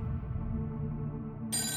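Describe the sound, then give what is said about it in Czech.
A wall-mounted telephone rings with a steady, buzzing electronic tone that sounds muffled and fairly quiet, then turns abruptly brighter near the end. Nobody speaks. “A pak zazvonil vedle na zdi připevněný telefon, kterého jsem si předtím nevšiml.”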